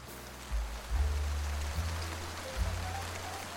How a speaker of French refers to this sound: Le bruit de la pluie pendant un moment de lecture